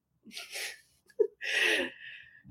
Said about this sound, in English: She's snoring now. it's music.